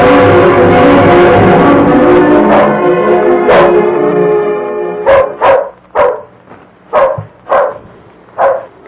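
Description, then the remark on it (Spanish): A dog barks repeatedly, the sharp barks growing more distinct and evenly spaced toward the end, after an opening where they blend with a dense, ringing bell-like wash of tones. “¿A quién le estará ladrando el perro?”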